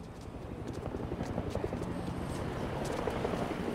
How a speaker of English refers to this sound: During the lift ride, you will hear sounds of mobility, such as people walking and running, ships at sea, cars, helicopters, and a rocket launch.